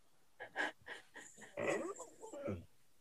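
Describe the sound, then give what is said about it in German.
A dog lets out a quick series of whines, huffs and breathy yelps, rising in agitation over a few seconds, reacting to someone at the door. No one speaks. “es geht um Hund, damit der Hörer weiß, um was ja. es geht.”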